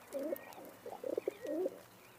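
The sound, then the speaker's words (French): A feral rock pigeon, the pigeon most often seen in town, coos in a soft, throaty burst of gurgling notes, rising and falling twice with a brief pulsing stutter between them, with no other sounds around it. “Le pigeon qu'on voit le plus fréquemment en ville, c'est le pigeon bisé, on appelle ça.”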